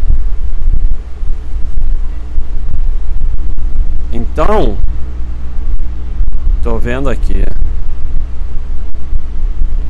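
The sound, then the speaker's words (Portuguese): An electric fan runs steadily near the microphone in very hot weather, a constant loud whooshing rush with a low humming drone underneath, while a man speaks briefly twice over it. “É o ventilador, pessoal. Eu não vou desligar, me recuso.”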